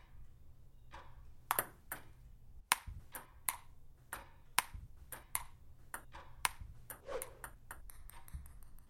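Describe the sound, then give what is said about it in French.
A ping-pong ball clicks back and forth in a rally during a game in a cellar, sharp light taps arriving in a steady, quickening rhythm, with a low background hum and no talking. “Normalement, il faut pas que la balle touche le la table.”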